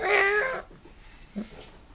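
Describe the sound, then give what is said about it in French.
A person imitates a cat's meow: one loud, drawn-out, nasal mew lasting about half a second, followed by near silence with only a faint murmur. “Pas je vais commencer à me mettre devant un chat et lui dire.”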